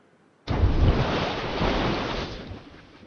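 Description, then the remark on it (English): A deep splash in a swimming pool, recorded with underwater and overhead mics and pitched down one octave, hits suddenly after a brief quiet moment, then churns into a dull, rumbling wash of water that fades gradually over a few seconds. No one speaks. “So now they took the sound and pitched it one octave down, sort of like slowing down a record.”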